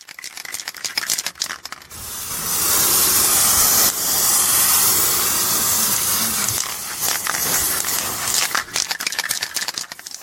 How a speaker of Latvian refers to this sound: Tu kādreiz arī ar aerosolu esi krāsojusi? Nu... Paklausies, kā izklausās, kad krāso ar aerosolu.